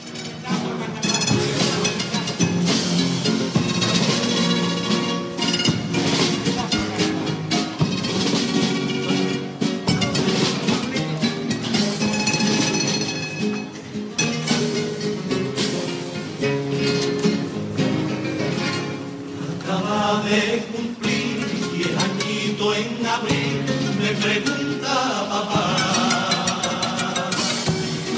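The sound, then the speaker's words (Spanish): A carnival comparsa sings the pasodoble "Acaba de cumplir de la cárcel vieja", a group of voices carrying a steady melody over strummed accompaniment, loud and continuous for the whole stretch with a few light metallic clinks. “Vamos a escuchar el paso doble Acaba de cumplir de la cárcel vieja.”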